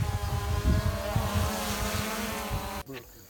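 Drone motors buzz loudly in a steady, high-pitched whine layered with harmonic tones as the drone is being landed, then cut out abruptly near the end, leaving a brief jolt and quieter noise.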